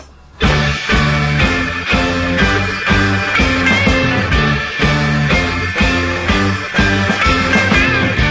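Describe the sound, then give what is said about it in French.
A recorded song kicks in after a brief quiet moment and plays loudly, with a steady rhythmic bass pulse and full, bright band instrumentation throughout. “Allez, on s'écoute un petit disque et on continue, notre euh, conversation.”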